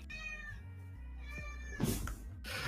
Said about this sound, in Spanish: Así me disculpo si escuchan los maullidos ahí por ahí de fondo.